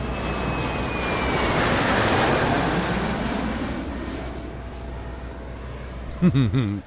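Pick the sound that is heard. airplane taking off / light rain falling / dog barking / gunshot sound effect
airplane taking off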